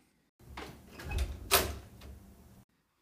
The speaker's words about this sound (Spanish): Tomó la llavecita y temblando abrió la puerta del gabinete.